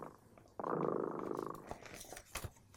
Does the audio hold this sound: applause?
no